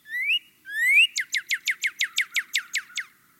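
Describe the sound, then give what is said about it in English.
A single bird sings clear: two rising whistled notes followed by a rapid, evenly spaced series of about eleven sharp descending chirps, with no other sounds around it. “Bird song has been shown to be calming.”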